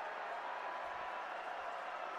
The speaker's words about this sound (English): And the Red Storm crowd getting very loud.